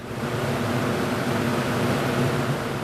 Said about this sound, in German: Die Zukunft rauscht wie ein Staubsauger. Eine Ansammlung von Containern, Rohren und Ventilatoren auf dem Dach einer Müllverbrennungsanlage. So präsentiert sich das Pilotprojekt der Firma Climeworks im Schweizer Hinwil, südlich von Zürich.